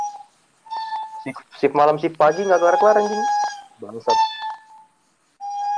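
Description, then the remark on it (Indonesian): A kue putu cart's steam whistle gives a steady, shrill tone in several sustained stretches, fairly prominent, with people talking loudly over the middle of it. “kue putu.”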